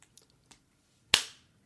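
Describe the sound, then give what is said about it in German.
A coin is flicked and caught in a heads-or-tails toss, landing heads: a few faint clicks, then one sharp, bright slap with a short fading ring. No one speaks. “Ich habe eine Münze, ja. Okay, dann würde ich, ich werfen?”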